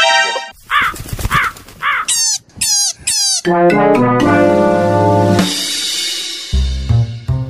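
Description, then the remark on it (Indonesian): A crow, snatching a ribbon and carrying it to its nest atop a very tall radu alas tree, caws loudly, a quick series of harsh, rasping calls followed by a longer, drawn-out croaking cry. No one speaks. “Pita Cici disambar oleh burung gagak dan dibawa ke sarangnya di atas pohon radu alas yang sangat tinggi”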